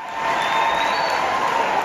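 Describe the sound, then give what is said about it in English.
Activists in the gallery of the Texas House cheer and applaud three men who stood against the speaker, a loud, continuous wash of clapping and shouting voices that holds steady for the whole moment. “L- listen to the activists in the crowd, you know, in the Texas House in the gallery, just cheering for these three guys who stood against the speaker.”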